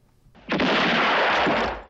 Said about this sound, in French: La scène de l'explosion du pont a d'ailleurs été un moment très compliqué du tournage.